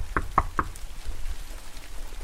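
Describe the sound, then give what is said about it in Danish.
Three quick, solid knocks on the wooden door of a yellow row house in steady succession, followed by a quiet pause with faint background noise and no voices. “vi står her og banker på”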